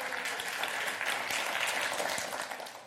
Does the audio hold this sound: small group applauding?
yes